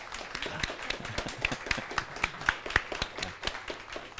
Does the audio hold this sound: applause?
yes